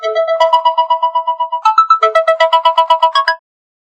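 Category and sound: signal or alarm, phone ringtone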